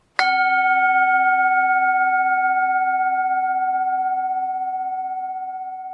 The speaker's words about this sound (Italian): Ringraziate il suono della campana tibetana che vi ha salvato da 45 minuti di monologo senza senso sui miei e i vostri mostri interiori.